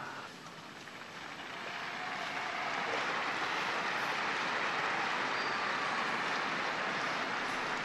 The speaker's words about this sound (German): Die Gläubigen bedanken sich mit einem kräftigen Applaus.